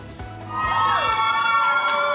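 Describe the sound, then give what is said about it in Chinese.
A crowd at an airport cheers as a man in green clothes and a black hat, a heart-transplant recipient from Alaska, appears; overlapping shouts and high, sustained whoops swell loudly after a brief quieter start and stay steady to the end. “穿绿衣戴黑帽的男子在欢呼声中现身机场。”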